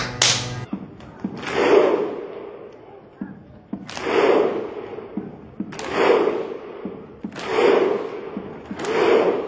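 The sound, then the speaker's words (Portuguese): A huge crowd of Iceland football supporters performs the slow, rhythmic Icelandic thunder clap: a sharp unified clap followed by a roaring collective grunt, repeating about five times at steady intervals of roughly two seconds. “A Islândia com aquelas danças antes dos jogos, oh, né? Deus. Depois do jogo também batendo palma.”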